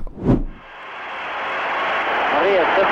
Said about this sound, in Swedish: And you can hear the applause here at Maple Leaf Gardens for Poirier Tolling. Many are standing. listen to them. Here they are. I said many are standing now. Everyone in the building is standing.